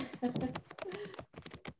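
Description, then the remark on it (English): Loud computer keyboard typing, a quick irregular run of sharp key clicks, with murmured voices underneath throughout. “That typing else? pretty oh. loud.”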